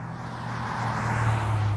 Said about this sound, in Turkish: Birisi araba yarışı yapıyor yine.